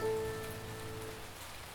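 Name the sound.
rain falling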